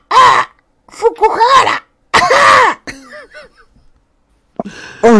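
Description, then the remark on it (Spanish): A voice imitates a crow's shriek: several loud, harsh, raspy cries in quick bursts, trailing into quieter strained vocal noises, with a throaty cough-like sound at the end. “uno de los cuervos, el cuervo de Mei, aparece en la ventana y hurraqueado grita”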